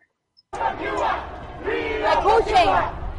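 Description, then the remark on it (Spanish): A crowd at a street demonstration shouts together loudly and continuously, many voices merging into a sustained roar with rising chanted bursts, energetic. “Eh, yo creo que es una concentración o una manifestación en, Miami, supongo, ¿no?”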